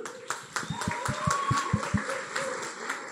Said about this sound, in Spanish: Y de hecho quiero que le demos un fuerte aplauso a nuestro equipo de voluntarios porque